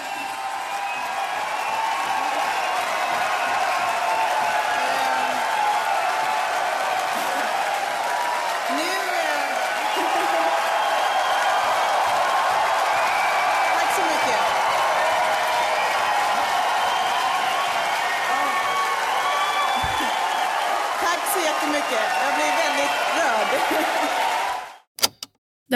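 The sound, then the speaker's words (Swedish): A large audience applauds and cheers in a steady, dense wash of clapping with scattered shouts, sustained for about twenty-five seconds before cutting off abruptly. “Hon får till slut tyst på publiken.”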